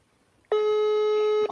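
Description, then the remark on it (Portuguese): A single steady telephone ringing tone of a call placed to area code (DDD) 47 in Paraná sounds for about a second, a loud sustained electronic pitch with rich harmonics, starting abruptly after quiet and cutting off cleanly. “Tá chamando lá, neném”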